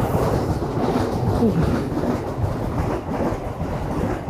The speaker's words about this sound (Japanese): なんかえらいゆっくりな、ゆっくりなんですね、電車ですね。